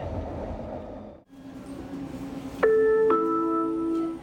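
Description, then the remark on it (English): A transit train rumbles along, then a clear two-note electronic chime rings out over the steady hum of the car, signalling that it has arrived at a station; the next station announced is Sapperton. “can't see their location, but they can they can hear and and recognize um, through the chime that we've arrived at a station.”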